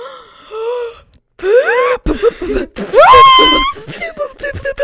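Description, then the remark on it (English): Several loud, theatrical gasps for breath follow one another, some breathy and others rising into voiced, wailing pitch swoops, separated by short pauses. “Sounds like we're having an asthma attack.”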